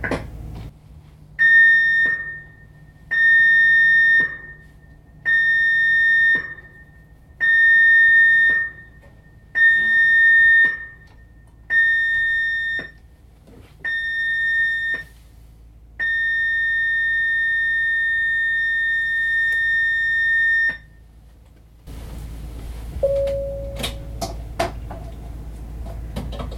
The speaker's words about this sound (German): The signal you have just heard was the Journal Emergency Signal and was sounded for guest exercise purposes only. Was Sie eben gehört haben, war das Signal für die Evakuierungsübung.